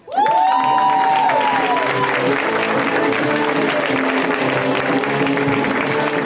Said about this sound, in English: Rhea Butcher, give her a hand, you guys.